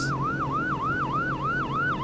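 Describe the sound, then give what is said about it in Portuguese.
A police boat's siren wails in a fast, steady up-and-down warble, loud and close, cycling about four times a second over a low, constant engine drone, with no voices, as the boat heads toward another boat far from shore. “É um barco da polícia, Carlos. Ele está vindo em nossa direção.”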